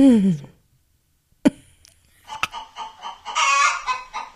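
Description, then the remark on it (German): Several chickens cackle loudly together in an overlapping chorus, with sharp squawks after a brief pause, building into a dense, excited clucking near the end. “Und äh, diesmal wurde mehrstimmig äh, sich beschwert.”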